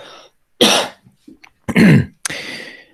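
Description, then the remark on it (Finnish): A few loud coughs in quick succession, harsh and breathy, with short pauses and a throat-clearing sound between them; no talking. “Otas nyt pienen yskäyksen, pistän tähän väliin.”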